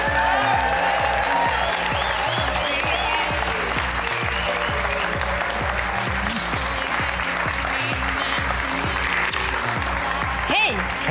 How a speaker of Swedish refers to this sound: Ger en, en varm applåd till …!